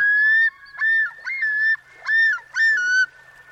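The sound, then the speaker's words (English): A common loon calls loudly, giving five rising, wavering notes in a steady rhythmic series with no other sounds around. “To hear a common loon in the wild during the summer, you'll need to find a northern freshwater lake where a pair is nesting.”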